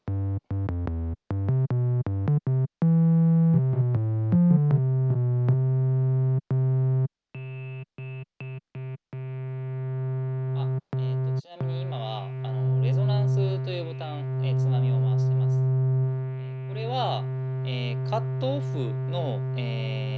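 A buzzy analog synthesizer tone, first chopped into short stepping notes, then holding a steady drone while bright, warbling overtones sweep and flutter above it. Loud and close, with no talking.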